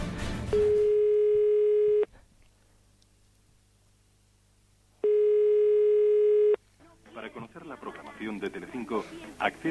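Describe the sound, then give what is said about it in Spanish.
A telephone line rings back with two long, steady buzzing tones separated by a few seconds of near silence, then a voice starts speaking over faint line hiss. “Bueno, pues si había otra llamada, a ver la otra llamada.”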